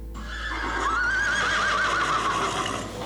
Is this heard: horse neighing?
yes